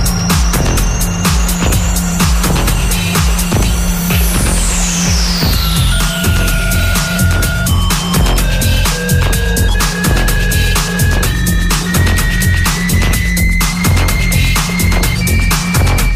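A loud electronic music track plays with a steady, driving beat, heavy low end, a descending synth sweep and sustained synth tones layered over the rhythm; no one speaks.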